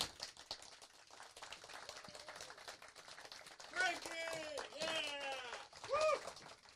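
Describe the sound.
A small crowd claps in a dense, steady patter, and partway through several voices join in with loud whoops and cheers over the continuing applause.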